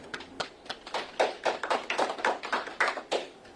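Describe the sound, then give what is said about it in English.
An audience applauds the signing of legislation making Juneteenth a city-wide holiday, with a scattered, uneven patter of claps that builds slightly and keeps going for a few seconds at a moderate level, with no voices over it. “That deserves a round of applause, y'all.”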